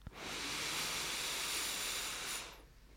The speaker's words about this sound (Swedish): Så släpp ner axlarna, slappna av i ansiktet och ta ett djupt andetag in genom näsan. Fyll upp både bröstkorgen och magen med luft.